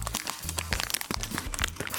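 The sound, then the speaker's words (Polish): Continuous crinkling and rustling of the paper wrapper of a chocolate muffin, with sharp crackly bursts coming in quick irregular succession for about two seconds; no voices. “to szeleścienie papierka jest dosyć regularnym dźwiękiem, którego Adobe Audition od y, ostatniej, nowszej jeszcze wersji bezbłędnie wytnie,”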